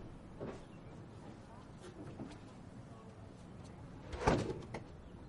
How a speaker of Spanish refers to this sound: Su madre la mira desde el interior. Su padre baja la escalera. Ella sale y cierra la puerta.